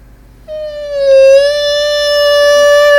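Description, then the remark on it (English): A person vocally imitates the whistling, tea-kettle-like cry that the cat Mimsy makes when given her food: one long, loud, high-pitched whine held steadily for about two and a half seconds, with a slight dip in pitch early on. “it just sounds like the tea kettle, like steaming once the tea kettle is boiled?”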